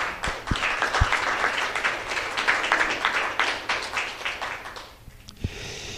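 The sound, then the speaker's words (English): An audience applauds the staff members steadily, a dense wash of many overlapping claps that holds at a moderate level for several seconds before thinning out near the end. “So I, I want to commend them and if I could get a round of applause for them, for all the staff members.”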